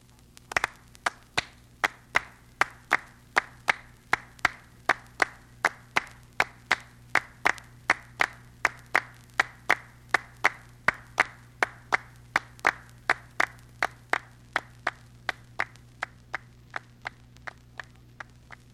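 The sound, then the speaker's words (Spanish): Rhythmic palmas hand clapping in a steady, even beat of about two claps per second, sharp and fairly loud, continuing alone throughout with a faint low hum in the background. “Palmas.”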